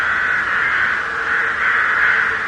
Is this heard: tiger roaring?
no